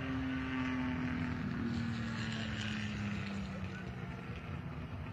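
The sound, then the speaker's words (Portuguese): Racing cars roar steadily past on a track at the site of an earlier accident, a loud continuous drone with one engine note slowly dropping in pitch as it moves away. “Agora, se os carros passam aqui pelo, pelo local do acidente entre Valentino e Colau.”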